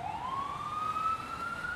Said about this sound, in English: and then you hear like sirens.